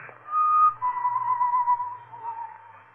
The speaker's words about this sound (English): The whistling was somewhere in the building. I listened. Where was it coming from?